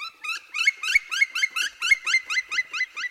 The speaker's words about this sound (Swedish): Spillkråkan är ju en form av hackspett. Lyssna!